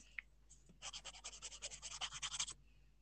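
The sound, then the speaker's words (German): A quick run of about fifteen crisp rasping strokes as someone cuts something with a blade, steady in rhythm for a couple of seconds, with no talking. “Ich glaube aber, guck mal, ich schneide jetzt. Haben ihr es gehört?”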